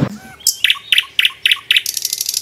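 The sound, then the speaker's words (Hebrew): Birds chirping in a garden: a quick series of about six bright, high-pitched chirps at a steady rhythm, finishing with a rapid fluttering trill. Fairly loud, with no talking. “והוא היה שורק לציפורים, והן היו עונות לו, תמיד, וזה תמיד הקסים אותי.”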